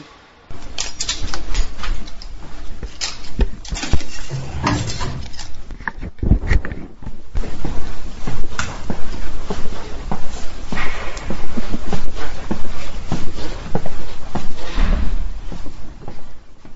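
A heavy security door, which needs a special chip to open, clunks open into a radio building, followed by a steady patter of footsteps moving along an indoor corridor, with occasional knocks and shuffles and no talking.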